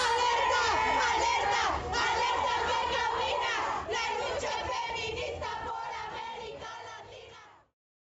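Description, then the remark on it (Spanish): A large crowd at a protest march against violence chants and shouts together in a loud, sustained roar of many voices, rising and falling in rhythmic surges before cutting off abruptly. “Salgo a marchar contra la violencia que vivimos en todos los ámbitos, en todos los momentos, por toda la gente.”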